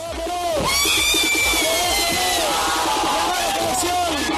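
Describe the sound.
A large crowd of fans cheers loudly and continuously, a dense roar of many overlapping voices with shouts and whoops rising above it, welcoming Peru's national football team at the airport in Lima after its exit from the 2018 World Cup in Russia.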